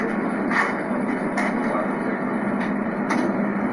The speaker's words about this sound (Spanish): A ver si se alcanza a oír las turbinas.